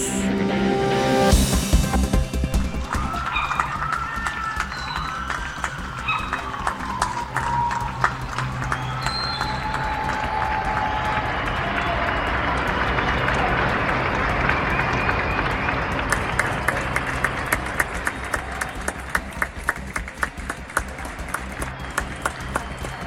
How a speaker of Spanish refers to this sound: Lo que ustedes están escuchando en este momento es parte del reconocimiento que se realizó a nivel nacional a los profesionales de la salud, cuando a las 21 horas de este martes personas los aplaudieran desde sus hogares en el marco del Día Mundial